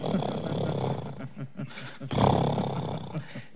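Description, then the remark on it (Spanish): A voice mimics the low rumble of a distant thunderstorm: a sustained, growling roar that dips briefly, then swells again, fairly loud, with no other sounds around it. “y entonces comienza a oír el rumor de una tormenta, como...”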